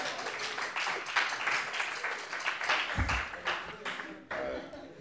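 A crowd claps and applauds steadily for several seconds, a dense crackle of many hands with a few louder bursts, fading slightly toward the end.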